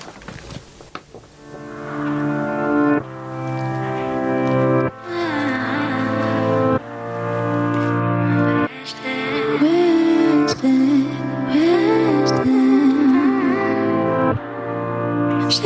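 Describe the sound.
A pop song plays at full volume: steady sustained chords under a woman's singing voice, with brief breaks between phrases and bright, shimmering accents in the second half.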